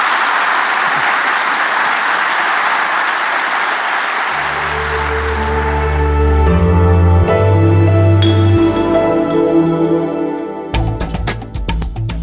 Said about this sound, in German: unserem Gast nochmal eine kräftige Runde Applaus.